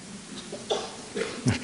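A quick sneeze breaks the quiet, arriving as a few short breathy bursts with the loudest one at the end. No one is talking.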